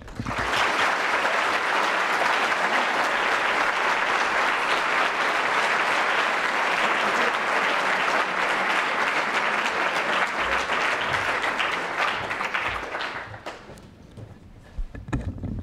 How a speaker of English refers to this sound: Would you please now, with your warm applause, welcome the President of the European Commission, Jean-Claude Juncker.